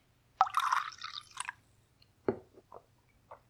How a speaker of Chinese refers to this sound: 这个比较常见，其实就是威士忌加上苏打水，用这个苏打水里面的气泡来打开威士忌，会带来一种很清爽的夏天的感觉。看我这还有一瓶苏打水，我现在往里面加一点。